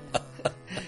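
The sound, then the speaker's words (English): Three short, stifled sneezes in quick succession, evenly spaced, each a brief breathy burst with no talking around them. “Bless you.”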